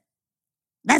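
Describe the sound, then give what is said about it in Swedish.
After near silence, a single short, loud dog-like bark or yelp bursts out at the very end, made by a human voice imitating how the dog Fonzie sounds, a dog that does not bark much, rather than a real animal. “Han, han skäller inte så mycket, men han låter så här...”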